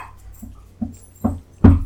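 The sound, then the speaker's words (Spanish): A dog tussles with a stuffed deer toy, letting out four short growly yips that grow louder each time, the last one the strongest, with no one talking. “Nuestra leona en Mal de Malibú está peleándose con un venado.”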